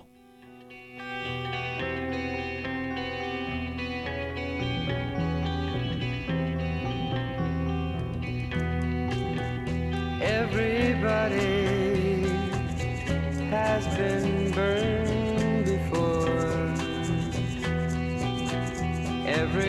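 A 1966 rock band song plays steadily at full volume, with layered electric guitars, bass and drums, the guitars swirling with chorus and reverb effects, no talking over it.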